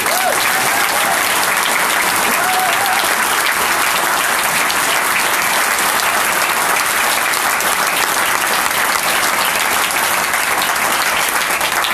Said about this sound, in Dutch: mag ik een waanzinnig applaus voor.